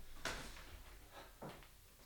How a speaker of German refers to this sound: warte, ich mach die Tür jetzt zu.